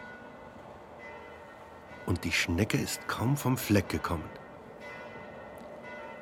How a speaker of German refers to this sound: Täusche ich mich oder höre ich das Geläut von Kirchenglocken? Ich hasse Kirchenglocken. Kirchenglocken haben immer etwas Wehmütiges. Sie täuschen sich nicht. Es sind Kirchenglocken.